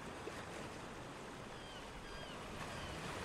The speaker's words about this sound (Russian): теперь слушайте безмятежную музыку приходящего прилива.